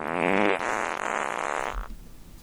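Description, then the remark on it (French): A loud, drawn-out fart sound effect with a buzzing, rippling tone that lasts almost two seconds before cutting off, heard on its own with no talking. “Avec brocoli, toujours prêt pour faire péter.”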